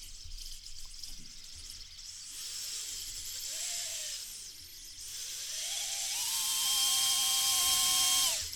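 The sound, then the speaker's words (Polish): A small camera drone's motors whir with a thin, high-pitched whine after it is switched on and armed, spinning up briefly, easing off, then rising again to a steady hum. Fairly quiet, with no voices. “No i tutaj słychać, jak on sobie pracuje. Jest cichutki. Bardzo, bardzo cichy.”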